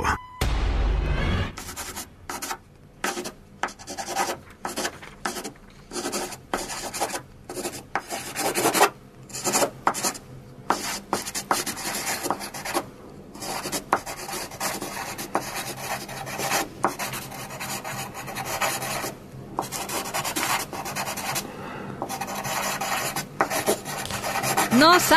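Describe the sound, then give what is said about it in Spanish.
Someone writing, a pen or pencil scratching across paper in quick, irregular rasping strokes with brief pauses between, steady and fairly loud throughout, with no voices. “Eh, estamos escuchando, eh, pues, alguien escribiendo, ¿no?”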